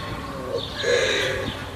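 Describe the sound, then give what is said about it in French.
Birds singing softly at a waste composting site, with a few warbling, tonal calls rising and fading over a low, steady background hum, not very loud. “Le silence n'est rompu que par les chants des oiseaux et les questions des enfants qui viennent avec leur maîtresse apprendre les vertus du compostage.”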